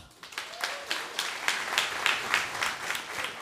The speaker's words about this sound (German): Jetzt erstmal euer Applaus für die Frage vom alten Mann. Euer Applaus!